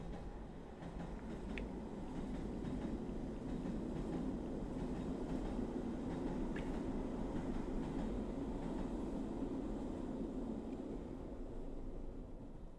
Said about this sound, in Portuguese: passa o comboio.